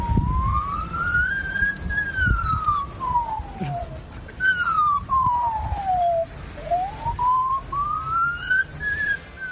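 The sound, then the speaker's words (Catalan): An Australian magpie mimics a fire alarm with a clear, piercing tone that slowly rises and falls in repeated siren-like sweeps, loud over a low background rumble. “Doncs això que sembla una alarma d'incendis és una garça australiana que, de sentir tant les alarmes, ha après a copiar-la.”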